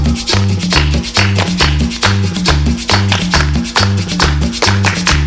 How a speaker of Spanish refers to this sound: Bien, bien, bien, bien, muchachos, con las palmas al ritmo, con la palma al ritmo.